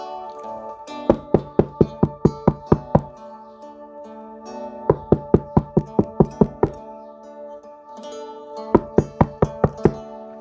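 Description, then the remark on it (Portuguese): Three bursts of steady, rapid knocking on a door, each about eight or nine firm raps, separated by short pauses, with a soft sustained musical tone underneath and no voices. “Eis que estou à porta e bato.”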